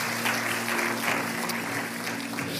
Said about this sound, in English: Can somebody give the Lord a clap offering? Hallelujah.